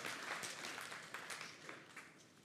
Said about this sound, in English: I just want to give them a round of applause.